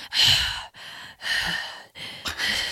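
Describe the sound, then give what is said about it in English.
A person imitates heavy mouth breathing: about four loud, raspy, close-up breaths in a steady in-and-out rhythm, with short pauses between them and no talking. “Like Tony Soprano style mouth breathing.”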